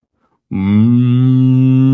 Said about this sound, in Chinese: 嗯，这是老牛叫唤呢